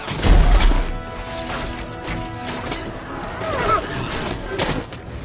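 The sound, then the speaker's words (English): A strong door that won't give is battered with heavy blows: a loud booming crash at the start, then several more thuds and wooden whacks at uneven intervals over a rumbling, noisy background. “The door won't give! It's too strong!”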